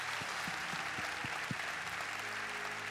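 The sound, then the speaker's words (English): Steady, dense applause from a large Celebration Church audience welcoming all of the church's locations fills the space, sustained and fairly loud, with a few sharper individual claps standing out in the first half and no voices. “Hey, so come on, put your hands together.”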